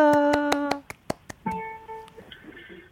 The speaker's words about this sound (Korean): 와, 박수!